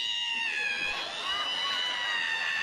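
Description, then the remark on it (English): A voice imitates the squeak of an ironing board being opened: a long, high-pitched creaking squeal, held steadily and loudly for a few seconds with a strained, whiny tone. “I don't know if I'm being overly ambitious, but I'm trying to invent an ironing board that when you open it, it doesn't sound like this.”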